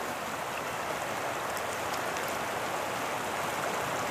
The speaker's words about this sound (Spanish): Pues sí, señores, nosotros cuando digamos lanzamos la caña, uno le toca hacer silencio y se escucha, digamos, los pájaros, eh, las piedras, digamos, el río cuando va con las piedras, eh, pues hacen como, como